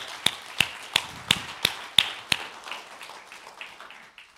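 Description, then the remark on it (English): An audience applauds guests on stage: sharp, evenly spaced claps ring out about seven times in quick succession, then give way to a softer, scattered patter of clapping that fades away. No one speaks. “If you were blessed or encouraged by having the guests up on stage and hearing their stories and having that conversation, if you were encouraged as I was to have them up here, can you just show appreciation give them a round of applause?”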